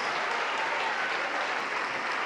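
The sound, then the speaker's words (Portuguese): A church audience applauds steadily, a dense, continuous wash of many hands clapping at an even, sustained loudness with no voices standing out. “Vamos aplaudir mais, aplaude mais, igreja, aplaude mais.”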